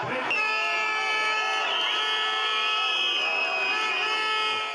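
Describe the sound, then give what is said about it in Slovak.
A big outdoor crowd of protesters on a square in Košice, protesting the abolition of the special prosecutor's office, chants together, many voices merging into a loud, steady roar that holds for the whole stretch without a pause. “Takýto dav sa naposledy v Košiciach zišiel po krutej smrti Jana Martiny.”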